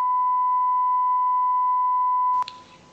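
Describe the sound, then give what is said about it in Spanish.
A single sustained, steady electronic beep at a constant pitch holds loudly for over two seconds, then cuts off abruptly, leaving a brief burst of faint noise. “Primero, pitido.”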